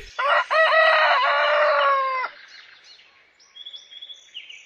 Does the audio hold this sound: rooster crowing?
yes